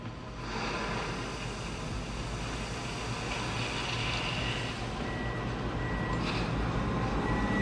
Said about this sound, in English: Do you hear that noise, that beep, beep, beep, and that noise of that loader that is dumping this huge um, amount of gravel and rock into the bed of a transfer dump truck?